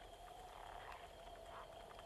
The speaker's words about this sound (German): Frosch.